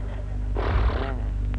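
A single short horse whinny, loud, rising and then breaking off after about half a second over a low steady rumble, with no talking, as the horse is being reined to a stop.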